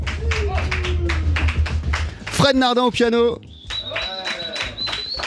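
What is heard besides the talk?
audience applause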